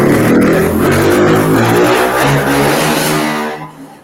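A motorcycle roars past on a street near an avenue, its engine loud and revving with shifting pitch, then fading away over the last half second. No one speaks.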